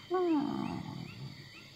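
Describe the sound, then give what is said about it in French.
A door creaks open in one long, groaning slide that drops in pitch, loud at first and then trailing off into a rough, fading rasp. No one speaks. “C'est qu'au moment où tu pousses la porte, La porte s'ouvre.”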